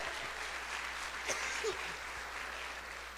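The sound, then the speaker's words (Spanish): An audience applauds as an offering of praise to Christ Jesus, a dense, steady wash of many hands clapping together that holds at an even level for the whole stretch, with no one speaking over it. “Es una ofrenda de palmas a ese héroe, el único y verdadero.”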